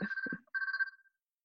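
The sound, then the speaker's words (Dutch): A telephone rings in two bursts of a trilling electronic tone, the second longer and trailing off, with a brief low thump between them and no voices. “Ik zit even te wachten tot de telefoon voorbij is.”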